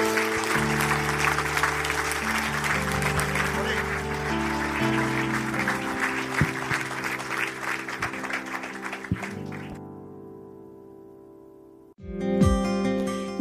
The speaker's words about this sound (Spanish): Dale un aplauso bien fuerte, Señor.